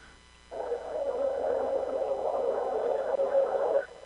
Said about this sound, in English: It's just kind of like white noise, if I remember correctly. It just beeps and bloops and yeah, there you go.